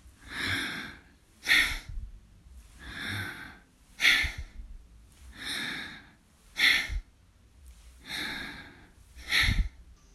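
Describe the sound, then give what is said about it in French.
Slow, deep abdominal breaths in and out, the belly pushed out on each inhale and drawn in on each exhale, clear, about four full cycles over ten seconds; each breath rises and falls as a broad airy rush, with no talking. “Inspirez, sortez le ventre. Expire, rentrez le ventre.”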